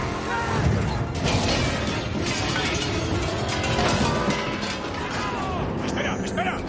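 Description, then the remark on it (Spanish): Construction scaffolding, knocked down when Toretto's Plymouth mounts the sidewalk in a chase, crashes down onto a car in a loud, sustained clatter of metal, with a dense run of rattling impacts and bangs that keeps going for several seconds without letting up. “Toreto sube a la acera y derriba el andamio de una obra.”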